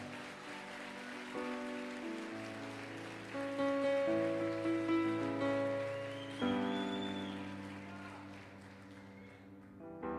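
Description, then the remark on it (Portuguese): A church audience claps steadily for Jesus in Pentecostal style, a dense patter of applause over sustained keyboard-like musical chords that shift pitch every few seconds and swell louder midway. “Se é para Jesus, é para aplaudir, igual, igual pentecostal.”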